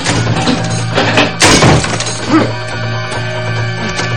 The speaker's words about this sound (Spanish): Mientras, Gary rompe la puerta del dormitorio con un hacha de cocina.